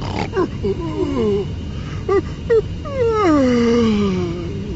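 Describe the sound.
A cartoonish elephant snores and sits upright with a start on an airplane: wobbling, groaning snorts with two short sharp grunts, then a long, loud, falling moan, exaggerated, like a voice performing it over a low rumble.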